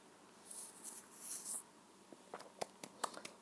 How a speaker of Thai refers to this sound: ขอจิบน้ำนิดนึงค่ะ